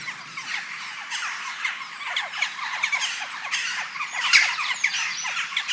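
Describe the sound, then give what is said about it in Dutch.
A large flock of migrating birds calls continuously from about two kilometres away, a dense overlapping chorus of short honking and squawking cries with no pauses, steady and moderately loud throughout. “En hoort die roepen twee kilometer tot hier.”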